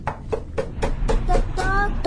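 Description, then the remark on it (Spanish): Someone knocks on the door of a house: a quick series of about eight sharp knocks in a steady rhythm over a low rumbling background, with a faint tonal sound near the end. “Un tiburón de ellos se disfrazó de viejito, de viejito vendedor de galletas y llegó a la casa de los peces tocando la puerta”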